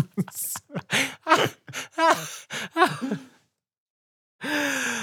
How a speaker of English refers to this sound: I'm gasping.